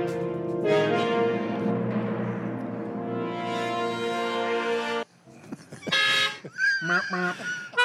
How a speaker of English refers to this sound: Most car horns emit a sound of approximately 100 to 110 decibels.